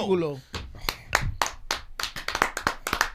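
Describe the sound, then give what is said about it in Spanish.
Hands clap in a loose, uneven rhythm, about a dozen sharp, bright claps over a few seconds, right after a short voiced sound at the start; more like a small group's applause than a big ovation. “yo pienso que esto es una ovación de pie.”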